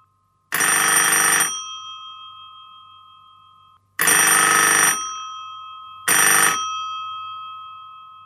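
A telephone rings three times for an incoming call bringing the Bible word for the day, each loud, bright metallic ring trailing off slowly, the third cut shorter; no voices, with a faint low hum underneath.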